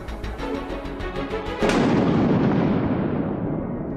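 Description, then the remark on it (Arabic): A loud thunderclap cracks suddenly and rolls into a deep, sustained rumble that slowly fades, following a few seconds of steady rhythmic patter. “اختلطت أصواتهم بأصوات الرعد”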